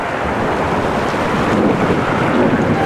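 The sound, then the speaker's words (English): Steady wash of calm sea water around the ship SS Maurevania, moving at barely eight knots through thick fog at four in the morning after a gale has subsided, a continuous rushing swell with soft wind noise, fairly loud, with no voices. “The gale has subsided, the sea is calm.”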